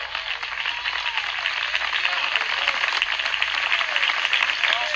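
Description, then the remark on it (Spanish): An audience applauds loudly and steadily for several seconds, giving a strong round of applause to the Lord. It is a dense wash of many hands clapping at once, with faint voices mixed into the crowd noise. “Dele fuerte aplauso al Señor en esta hora.”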